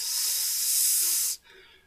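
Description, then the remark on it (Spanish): A person imitates hissing snakes with a single long hissing sound, steady and fairly loud for over a second, then cuts off abruptly into near quiet. “o sea, era un armadillo hecha de muchas serpientes que se estaban moviendo constantemente, entonces estaban así como”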